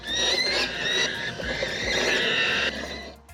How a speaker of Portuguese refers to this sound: Uma equipe pronta para uma missão: reespantar os pássaros das árvores do centro da capital italiana. E para isso, eles usam alto-falantes que reproduzem o som das próprias aves.